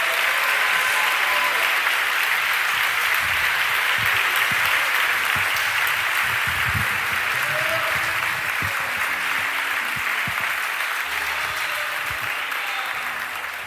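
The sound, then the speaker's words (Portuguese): A large crowd applauds steadily and loudly for over ten seconds in praise of the name of the Lord, a dense wash of clapping with a few faint voices and shouts mixed in, fading slightly at the end. “Aplauda e glorifique, exalte, enalteça, grite, grite, adore o nome do Senhor.”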